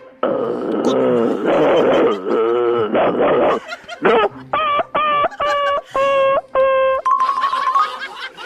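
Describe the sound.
A person imitates a dog when asked to, starting with drawn-out whining howls, then breaking into a quick series of short, sharp yipping barks, loud with no other talk.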